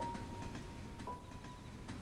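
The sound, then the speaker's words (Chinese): An old green passenger train rumbles past in summer in a steady, heavy low roar, with regular clacks of wheels over rail joints and a faint, thin squealing tone drifting above. No voices. “窗外的风吹来了夏天的声音，轻描淡写的夏虫，飞机划破了天空，以及绿皮火车驶过的阵阵轰鸣声。”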